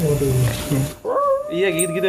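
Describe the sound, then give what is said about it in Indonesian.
A person talks briefly, then a voice imitates a dog's howl with a rising, drawn-out wavering tone that holds for about a second, with a bit of speech mixed in. “cuman bentar doang cuman 10 detik dari MCK-nya itu ada suara anjing melolong gitu.”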